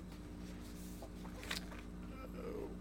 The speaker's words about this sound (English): Oh, oh shoot! There we go. Poster was folding up on me.